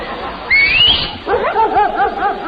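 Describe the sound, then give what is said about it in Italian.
A single rising whistle rings out, and a moment later a dog answers with a quick run of high, yelping barks, moderately loud. “Ha risposto un cane.”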